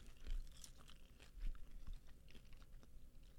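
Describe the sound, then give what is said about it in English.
Crisp crunching of people chewing crunchy food during a taste test, with irregular bites and sharp crackles repeating over a few seconds, heard on its own without talking. “Y'all can hear us chewing on the cam on the on the radio.”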